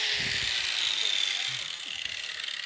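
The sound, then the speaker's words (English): A small electric power tool, connected to a 110-volt power source, runs continuously, a loud, high-pitched whirring buzz that holds steady for the whole stretch, with faint low murmurs beneath it. “But when it's connected to a to a power source, even just 110 volts, it uh, you know, it's kind of a fun little deal.”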